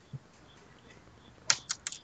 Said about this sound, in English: Somebody's typing. Hmm. Nobody's hmm. typing anymore.